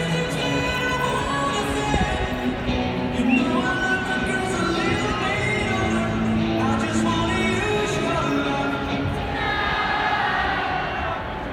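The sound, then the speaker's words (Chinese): Charlie Blackmon's walk-up song plays at the Colorado Rockies' ballpark while a big crowd of fans sings along, a dense, steady roar of many voices carrying the melody at an even, loud level throughout; the DJ suddenly cuts the music and the crowd sings on together. “如果你去的那天很幸运，Charlie Blackmon 有上场的话，或是他还没有被交易掉的话，那你可以听听他的这个出场曲，是非常有趣的。”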